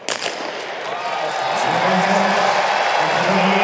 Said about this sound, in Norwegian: Lyden av et ivrig publikum har vært et stort savn hos mange.